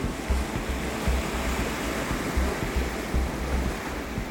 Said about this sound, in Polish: Mimo tego stojąca na pokładzie para Niemców z zachwytem patrzyła, jak morska woda z impetem uderza o ciemne wybrzeże.